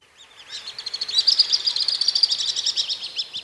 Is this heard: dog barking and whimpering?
no